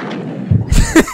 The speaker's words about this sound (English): And the gunshots!